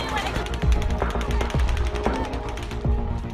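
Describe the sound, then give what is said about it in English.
Rapid automatic gunfire, over 100 rounds fired into a concert crowd in under a minute, crackles in fast, uneven bursts, loud and continuous for several seconds, with a few heavier low thumps and a murmur of voices mixed underneath. “In under a minute, over 100 rounds are fired into the crowd.”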